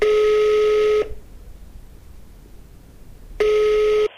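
Telephone ringing tones on a call line as a call is placed: two steady, loud electronic tones about a second each, separated by a quiet gap of over two seconds, with no one speaking.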